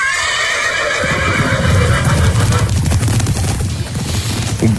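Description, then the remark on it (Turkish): A horse whinnies loudly at the start, then a rapid, steady clatter of hooves takes over, sounding busy as several horses seem to pass by. “Tam giden atlar geri döndü ya.”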